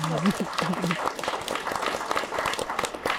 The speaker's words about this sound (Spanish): No, pues aplausómetro otra vez.